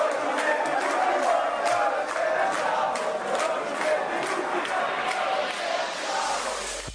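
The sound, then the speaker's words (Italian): A large audience roars steadily, cheering and shouting together with no letup, a dense wall of voices that stays loud from start to finish before cutting off. “Allora, eh, sentiamo un attimo se il pubblico è caldo.”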